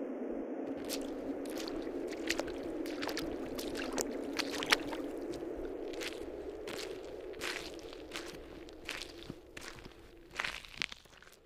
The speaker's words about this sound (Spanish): De pronto escuchamos cómo unas pisadas parecían salir del agua y se dirigían hacia el bosque.